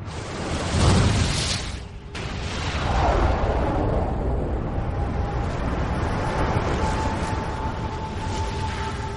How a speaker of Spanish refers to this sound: Si seguimos las pistas, veremos que hace mucho tiempo el universo se originó a causa de una explosión conocida como el Big Bang.